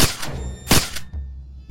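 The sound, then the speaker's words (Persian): Several sharp shots from a revolver fitted with a silencer crack out loudly in quick, uneven succession as all its bullets are emptied into a man's chest in a deserted alley, with a brief ringing tail after the last one and no voices. “من دوست تو نیستم سپس هرچه گلوله داشت در سینهش خالی کرد”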